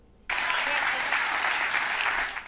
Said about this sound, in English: Listen to them clap and cheer about being grifted.